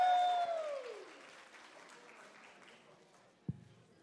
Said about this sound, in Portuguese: Palmas.